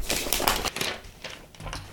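Rustling of video game magazine pages being turned, a few crisp papery swishes and flutters following one another quickly, with no talking.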